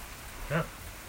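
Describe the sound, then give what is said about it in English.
Heavy rain pours down, heard from a back porch, in a continuous, even hiss that fills the whole moment, while a short voice sound briefly rises over it near the middle. “It's raining profusely, so if that's the noise you hear in the background, that's why.”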